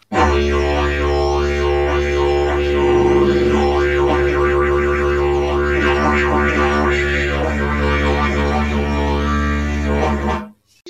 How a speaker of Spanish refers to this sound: Este instrumento es un instrumento australiano que se llama didgeridoo. Este instrumento no lo hace el humano. Este instrumento lo hace la hormiga. La hormiga busca el tronco que más le gusta y lo empiezan a huecar Y suena así.